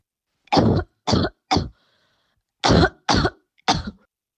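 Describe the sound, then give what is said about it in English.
Six sharp coughs from a symptomatic, COVID-19 positive person come in two quick clusters of three, separated by a brief pause. Each burst is harsh and breathy, with no talking around them. “To make things even more challenging, listen to a person who has symptoms and is COVID 19 positive.”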